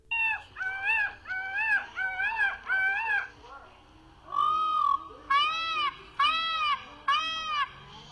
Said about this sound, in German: Also wir sehen ein Pfau im Tee schwimmen. Und dieser Pfau macht merkwürdige Geräusche.